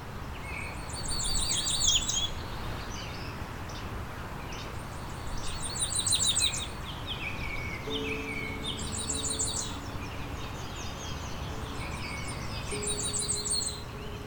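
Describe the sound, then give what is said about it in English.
A Cape May warbler, a tiger-striped black and white warbler with a dark orange cheek patch, sings a thin, high series of quick notes, repeated four times at steady intervals, clear over a constant outdoor hiss. “Cape May warbler is a dazzling tiger striped black and white warbler with a dark orange cheek patch that looks unlike any other warbler.”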